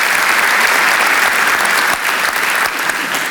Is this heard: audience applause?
yes